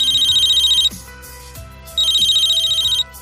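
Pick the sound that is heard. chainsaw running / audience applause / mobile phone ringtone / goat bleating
mobile phone ringtone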